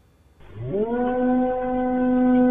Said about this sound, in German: Der Hund in der Türkei, der jault und vor dem großen Beben warnt, das kurze Zeit später dort und in Syrien massive Zerstörung anrichtet.